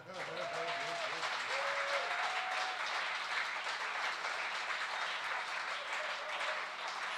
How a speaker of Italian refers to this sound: Eh, fatelo bene questo applauso. No?